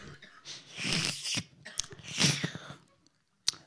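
Soft slurping and sipping from a thin porcelain coffee cup in a few short bursts, with airy hissing and light mouth sounds, then a brief pause and one final quick sip.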